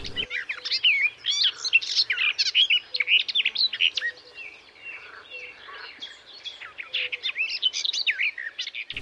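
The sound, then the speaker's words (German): A garden warbler sings a long, continuous, rapid warble of bright chirps and twittering phrases, fairly loud and steady throughout, with no voices. “Und dann singen sie tapfer an gegen Kälte und Wind und behaupten, es ist Frühling.”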